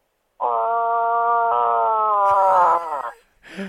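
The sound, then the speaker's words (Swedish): A person imitates a moose call: one long, drawn-out nasal moan with a steady tone, loud, trailing off into a brief breathy sound at the end. “Och du fick göra de där älgljuden som har blivit karaktäristiska för, för dig eller? Hur är det de låter?”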